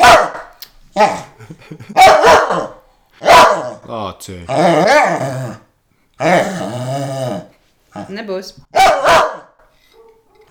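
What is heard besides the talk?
dog barking and growling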